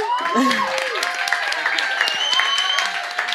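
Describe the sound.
A crowd applauds steadily for a few seconds, dense rapid clapping with scattered whoops and voices rising over it before it starts to fade.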